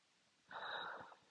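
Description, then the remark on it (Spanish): A single raspy snore from someone lying beside the speaker in bed, one rough breath lasting about half a second in otherwise quiet surroundings, with no talking. “Comparto en mi cama, frente a un espejo, en pijama, con mis náuseas roncando al lado de mí.”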